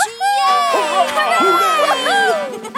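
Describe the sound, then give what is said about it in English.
A crowd of voices, many sounding like children, cheers and shouts together at once, loud, a dense, excited burst lasting a few seconds, cheering for a very old steel engine introduced as a contestant. “let's give a big cheer for our very old engine of steel, the Rail Rocket”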